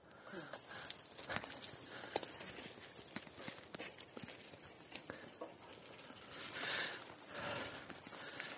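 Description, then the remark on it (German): A horse's hooves clip-clop at a steady walking pace, fairly loud, on the Grafendamm, over a rustling outdoor background with a faint voice now and then. “Normalerweise lasse ich mein Pferdchen laufen hier.”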